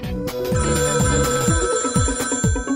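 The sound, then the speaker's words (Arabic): A telephone rings steadily with a bright, melodic electronic tone repeating in quick phrases, fairly loud, with no voices over it. “هاتف ايام اللولو تاريخي”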